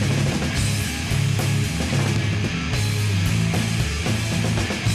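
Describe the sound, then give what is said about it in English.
A loud, dense rock song plays with a heavy, pounding bass line driving steadily underneath and a thick wall of distorted instruments on top, with no voices talking over it. “Just like fucking bass line, man, just hammering that bass.”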